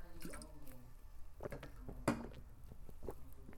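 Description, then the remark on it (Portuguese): Wet mouth sounds of someone sipping and gulping water: a series of small slurps, clicks and swallows spread over a few seconds, quiet but intimate, with no talking. “Nossa, deve ter sido um SMR bizarro agora, de você ter ouvido algo água assim descendo pela garganta e tal.”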